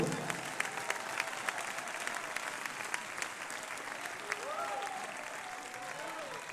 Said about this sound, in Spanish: Déjame un fuerte aplauso a ese varón